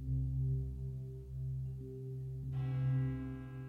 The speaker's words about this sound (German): Kaum war der elfte Glockenschlag verhallt